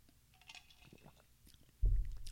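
Someone drinks water: soft wet mouth clicks and swallowing noises, then a loud, low thump near the end, like a bottle being set down.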